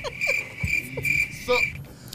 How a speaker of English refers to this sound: Or crickets again.